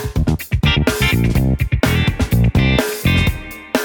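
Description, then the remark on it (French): Guitar music with reverb being added in the mix, drenched in reverb, with quick plucked notes ringing into a wide, washy tail. It plays loud and continuous with no voices. “Je vais mettre un peu de reverb.”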